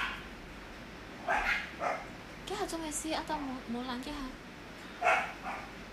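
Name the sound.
dogs barking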